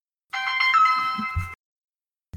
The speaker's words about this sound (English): Oh, I got a phone call.